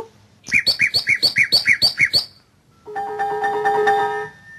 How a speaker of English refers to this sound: Et voici le rossignol. Il éclate tout d'un coup, brusquement. la seconde strophe, ce sont des batteries sur deux sons très célèbres.